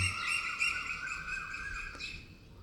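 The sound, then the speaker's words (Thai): Birds chirping in a steady, overlapping chorus of high, bright calls, continuous for the whole stretch and fairly soft, with no voices. “เสียงธรรมชาติก็เหมือนกัน เสียงธรรมก็เหมือนกัน เสียงนกก็เหมือนกัน”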